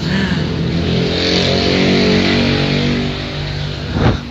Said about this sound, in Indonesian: knalpot anjing nih